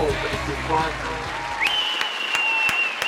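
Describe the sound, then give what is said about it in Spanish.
A crowd claps in a dense patter, then the applause thins to a few scattered claps while a long, high whistle rings out over them. “Bravo, bravo, aplausos, aplausos.”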